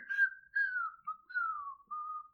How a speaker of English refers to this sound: I don't own the copyrights to that song. I think it's fine since you whistled it yourself.